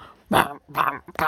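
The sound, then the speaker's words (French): At a workplace, a voice imitates fingers pressing very hard on MIDI keyboard keys, making three short, punchy vocal bursts in quick succession, each a clipped, rough syllable. “C'est le bruit des, doigts qui appuient super fort sur un clavier MIDI, mais on n'entend rien.”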